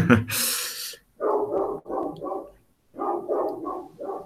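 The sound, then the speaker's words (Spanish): A female dog barks at home in two quick runs of several sharp yaps, separated by a short pause. A burst of rough, hissy noise comes just before the barking starts. “Que tenemos una perra que está ladrando, pero bueno, en fin.”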